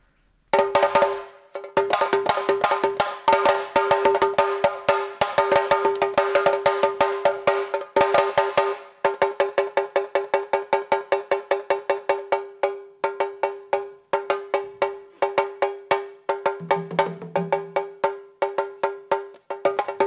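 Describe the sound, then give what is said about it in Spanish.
A Sabar drum solo played by a master of Sabar music, rapid, dense strokes rolling on without pause, loud, with a bright ringing tone sustained beneath the hits and no voices. “les voy a dejar el solo de tambor que este, este maestro de, la música Sabar hizo, que creo que vale la pena el solo por sí mismo”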